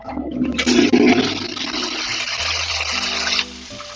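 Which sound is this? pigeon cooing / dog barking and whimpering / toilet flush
toilet flush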